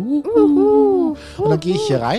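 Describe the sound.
A person imitates owls heard outside at night with a couple of soft, rising-and-falling hoots, then continues speaking normally.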